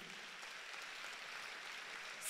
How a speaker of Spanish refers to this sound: Dan un aplauso al Señor.